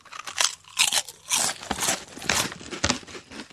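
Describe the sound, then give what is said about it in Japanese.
Someone bites into a crunchy yuzu-pepper (yuzu kosho) flavoured snack, a little puffier than potato chips, and chews, producing a series of bright, crackly crunches in irregular bursts, with no talking during the chewing. “あ、柚子胡椒の味いいね。うん。あの、いわゆる、ポテトチップスよりは、少しふわってしてるんで、うん、なんか、ね。”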